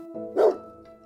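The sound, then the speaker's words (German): A single sharp dog bark rings out, loud and abrupt, with a steady tonal hum running underneath before and after it. “Hunde kann ich ja gar nicht leiden, bissige schon gar nicht.”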